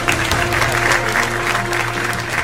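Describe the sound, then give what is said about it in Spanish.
A crowd claps steadily and densely for the full two and a half seconds, a loud, even wash of many hands with no voices rising above it, applauding a guest introduced to talk about film and series. “Fuerte el aplauso.”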